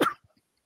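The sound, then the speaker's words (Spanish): A single sharp sneeze from a person in the cold bursts out, loud and brief, then fades into near silence with only a couple of faint small sounds after it. “Salud.”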